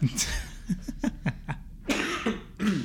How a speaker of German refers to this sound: Und gerade auch husten.